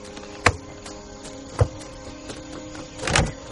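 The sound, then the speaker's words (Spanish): A car door, closed by a lieutenant, thuds shut, part of a series of three sharp knocks, the last one heavier and doubled, over a steady low hum with no one talking. “El teniente cierra la puerta del coche.”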